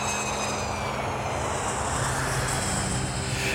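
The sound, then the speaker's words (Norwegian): A small private plane's engine drones steadily and loudly, a continuous low hum with a broad rushing wash of air noise, with no one speaking. The plane is flying from Vilnius, Lithuania, to Gardermoen in Norway. “Etter et døgns hvile i Litauen kan Frode gå om bord i privatflyet som skal ta ham igjen til Norge.”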